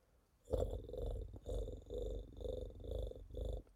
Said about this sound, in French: Les ronronnements présentent de véritables vertus apaisantes. Un vrai médicament, mais sans effet secondaire. Il a même été observé une diminution des troubles cardiovasculaires, du cholestérol et de l'hypertension